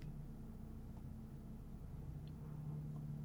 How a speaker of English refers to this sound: A helicopter is going past. It's making the worst noise ever.